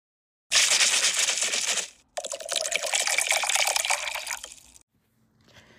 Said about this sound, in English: Take our glass out the freezer, fill it with ice, and we're going to strain our drink into our glass.